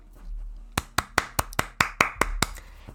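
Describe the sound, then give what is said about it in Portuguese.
Hands clap about nine times in a quick, fairly even rhythm, each clap a sharp, crisp slap, with no one speaking. “essas são minhas palmas.”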